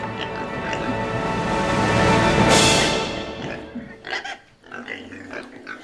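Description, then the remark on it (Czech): Pigs grunting and snorting in a dense chorus, swelling to a loud squealing burst midway, then thinning to scattered separate grunts near the end. “Prasata jsou konec konců víc podobný lidem než koně.”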